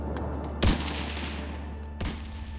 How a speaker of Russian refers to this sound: Когда тяжелую дверь наконец-то выбили, он тут же сделал в проем несколько выстрелов и помчался дальше, уводя погоню за собой.